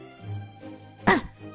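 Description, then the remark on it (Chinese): A single short, sharp cough bursts out, louder than the soft low vocal murmur heard before it, then fades quickly into quiet. “丽娜还要嘴硬，咳嗽一声说道”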